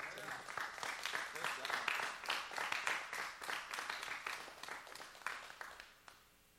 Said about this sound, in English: Would you give our actors a great big round of applause?